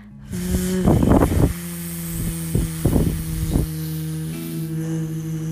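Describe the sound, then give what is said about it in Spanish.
A steady low humming exhale imitates a buzzing bee during a guided breathing exercise, holding one pitch for several seconds while a few short breathy bursts rise over it. “Y exhala como una abeja.”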